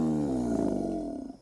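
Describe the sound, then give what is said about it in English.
A male alligator lets out a single deep, rumbling bellow, a sustained low growl that holds steady for over a second before trailing off, fairly loud with no one talking. “Male alligators bellow to announce their territory.”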